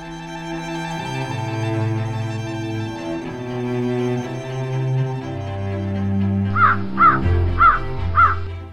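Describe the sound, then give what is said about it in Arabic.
A crow caws four times in quick, evenly spaced succession, loud and close, over a steady background of soft instrumental music that plays alone before the calls begin. “مثل معظم الناس لم يكن رأيي في الغراب جيدا فالغربان رمز للشؤم وفراق الأحبة”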